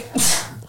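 sneeze

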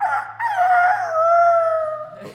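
rooster crowing sound effect

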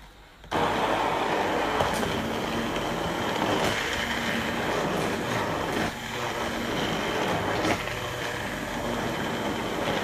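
immersion blender running

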